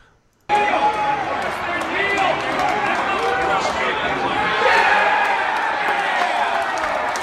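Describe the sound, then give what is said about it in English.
A crowd of bettors at the MGM Grand erupts into sustained cheering and shouting for a kneel down, loud and dense from the start, with many overlapping voices, whoops and some clapping holding steady for several seconds. “That was betters at the MGM Grand cheering for the kneel down.”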